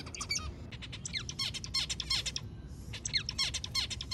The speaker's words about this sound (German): Das sind äh, massenhaft Daten an Vogelgesängen von Zebrafinken über alle Stadien vom Singen lernen bis hin zu, wenn sie selber erwachsen sind dann.